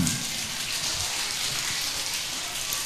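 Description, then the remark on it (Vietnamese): A big round of applause from a crowd of children, a dense, steady crackle of many hands clapping at once, holding at an even loudness for about three seconds with no voices over it. “rồi cho một tràng pháo tay thật lớn nào”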